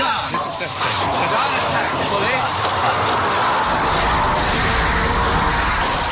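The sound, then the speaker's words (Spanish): Three submarine torpedoes being fired, spaced about 30 metres apart: a few brief thuds at the start give way to a loud, steady rushing roar that fills the whole recording without letting up. “Este sonido fue recogido cuando los torpedos del Conqueror fueron disparados.”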